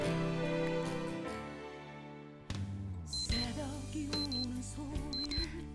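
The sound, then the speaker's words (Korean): A phone's wake-up call rings out at six o'clock sharp as an electronic ringtone: a warbling melodic tune with repeating high, bright beeps layered over it, steady and fairly loud, with no voices. “6시 정각에 모닝콜 전화벨이 울린다.”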